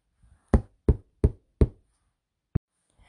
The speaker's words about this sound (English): But anyway, so what we're going to do is we're going to pretend that we are knocking on someone's door.